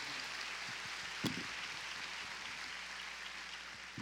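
A crowd of people applauding for the Lord during a praise service, a dense, steady wash of many hands clapping at once that holds evenly for several seconds, with one slightly sharper clap standing out early on.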